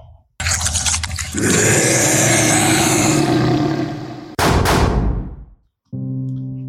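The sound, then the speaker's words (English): A loud, sustained roaring rumble gives way to a sound effect of two sharp gunshot blasts in quick succession that ring out and fade, followed by a short tonal hum. “Well, we heard those gunshots.”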